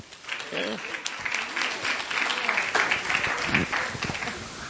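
A room full of people claps steadily, a dense, even patter of applause that holds for several seconds at a fairly close, moderate level.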